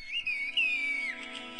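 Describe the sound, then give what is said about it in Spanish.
Villagers in a Turkish village communicate in whistled language: a clear human whistle holds a high, steady tone with gentle pitch glides, followed by a few shorter whistled notes. No one speaks. “se comunican a, a puros chiflidos.”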